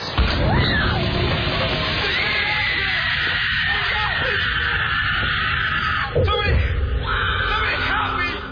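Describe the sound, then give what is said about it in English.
A loud, drawn-out acted scream of a kitchen accident rises over dense, chaotic noise, with a sharp crash partway through and more yelling and clatter continuing to the end. “And the scream is really bad.”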